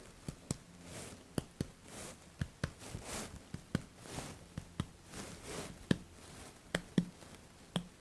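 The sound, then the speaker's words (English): Soft, dull pats of a hand on a patient's chest during a physical examination, listening for resonance, about fifteen irregular hollow thumps over several seconds, quiet with no talking in between. “Right, now I'm just going to be uh, patting on your chest here.”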